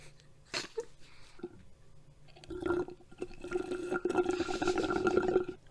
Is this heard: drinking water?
yes